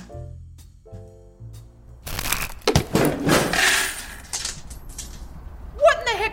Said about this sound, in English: The table crashed, sending it, the cards, and the squeak sprawling to the ground.